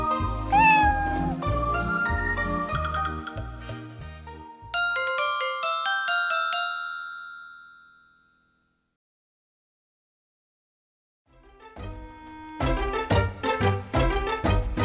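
A cat meows a couple of times over bouncy, rhythmic music, then bright chimes ring out and fade into a few seconds of silence before the music starts again.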